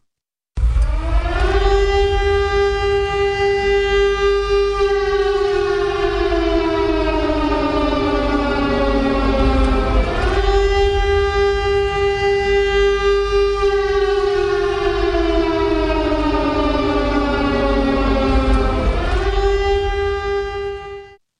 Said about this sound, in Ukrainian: Увага, громадяни, повітряна тривога